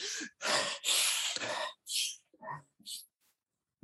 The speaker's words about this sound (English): And you don't even have to exercise. You can just do deep, fast, fast breathing. Go like this.